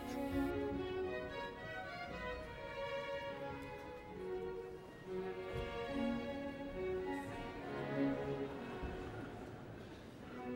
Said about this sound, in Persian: هنوز هم این قطعه به همین شکل اجرا میشه اگر خوب گوش بدید میبینید حجم صدای ارکستر داره کم میشه کم کم نوازنده ها رفتن و فقط دو ویالون باقی موندن